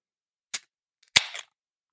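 A cap being ripped off a vodka bottle: a small sharp snap, then a louder cracking pop with a short crackly tail, with no voices.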